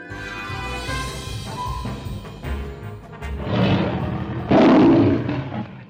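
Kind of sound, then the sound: animal, lion roaring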